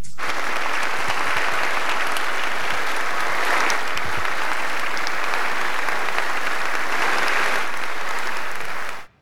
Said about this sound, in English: That was inspiring. I'm pretty sure that was the first time in history people applauded a Zoom call.